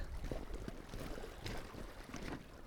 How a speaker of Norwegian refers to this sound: Det er liksom sønnavind, da, så det Sønnavind er jo deilig, det, for da tenker jeg at vinden kanskje blir presser tidevannet litt sånn ekstra godt inn her. Hører dere bølgene, folkens?